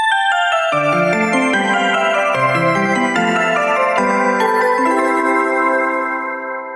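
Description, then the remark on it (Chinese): A bright, cheerful Tokyo Metro departure melody used at Shinjuku station on the Marunouchi Line, a short chiming tune of stepping notes over sustained harmony, bell-like and fairly loud, playing alone and fading out at the end. “这是新宿丸之内线的新宿 B 线使用的一首发车音乐。”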